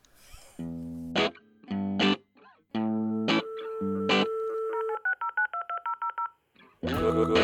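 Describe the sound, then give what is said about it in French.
A short electronic jingle built from telephone dialing tones: harmonic synth bursts give way to a quick run of beeping touch-tone notes, loud, with no voices. “Écoute, je te laisse, je te laisse envoyer ce, ce, jingle.”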